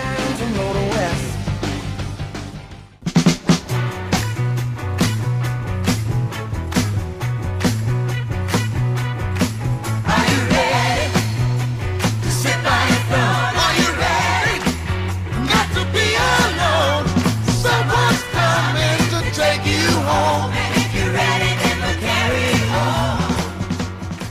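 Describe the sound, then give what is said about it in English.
A 1970s song plays loud: a full band with a steady, bouncing bass line and busy instrumentation, starting after a brief pause and continuing without any talking. “Now, for those of us of the 70s, I bet you've heard that song.”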